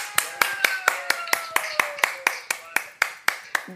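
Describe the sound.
An audience claps together in a steady, quick rhythm at a show's season finale, sharp beats about four per second, with faint voices or tones sustained underneath.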